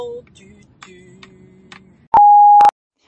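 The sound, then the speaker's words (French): A single loud, steady electronic beep lasting about half a second, sharply starting and stopping after a stretch of quiet low background murmur, like an answering machine tone signaling to record; the beep of a new answering machine before a message is left. “Si tu veux laisser un message à la commune Laisse un message sur le répondeur de la rebelle”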